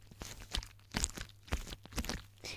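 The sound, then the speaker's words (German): A balloon filled with tiny beads is squeezed over and over, pressing the beads outward, giving about five crunchy, crackling squishes in a steady rhythm, fairly soft, with no one talking. “Du kannst halt die Bällchen so rausdrücken.”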